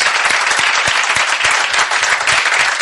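Steady audience applause, a dense wash of many hands clapping at a loud, even level throughout, with no voices standing out.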